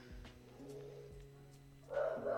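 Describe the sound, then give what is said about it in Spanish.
Dogs bark in short, repeated yaps that sound somewhat muffled, ending in a louder burst of barking. No one speaks. “Oh, los perros.”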